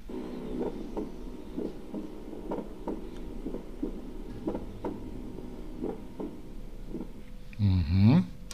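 A steady, muffled heartbeat with a split first heart sound repeats about eleven times at an even pace, the first sound of each beat doubled, before a brief louder rustling noise near the end.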